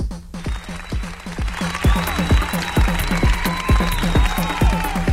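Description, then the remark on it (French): A loud, sustained burst of crowd applause and cheering played as a sound effect, with a steady rhythmic thumping running underneath throughout the few seconds. “Applause.”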